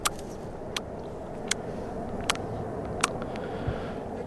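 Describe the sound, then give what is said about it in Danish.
A voice imitates a dusky warbler's call: six short, hard 'tack' clicks at a steady, unhurried pace, each sharp and dry, over a low, rumbling background hum. “Øh, vi fandt den sammen, øh, hvad hedder det, simultant hver for sig, en brun løvsanger, som virkelig er sådan indbegrebet af en sjældent fugl om efteråret.”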